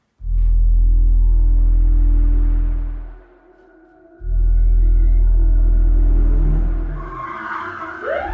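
A police car's engine roars loudly in two powerful surges with a brief lull between, ending in a harsh screech of skidding tires as it pulls in at a campsite. No voices.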